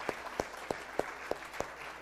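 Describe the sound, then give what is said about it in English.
Audience applause at Gateway welcoming a group of new youth ministry helpers, heard as about six sharp, evenly spaced claps in a steady rhythm over a soft, faint wash of background clapping. No voices are heard. “So let's give all of them a round of applause as a welcome to Gateway.”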